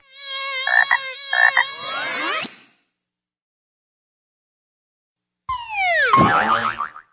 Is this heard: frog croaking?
yes